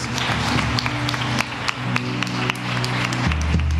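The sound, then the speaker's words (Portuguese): An audience applauds loudly for God, a dense wash of many hands clapping steadily for several seconds, with a sustained low musical drone held beneath it. “Você pode aplaudir bem forte a esse Deus?”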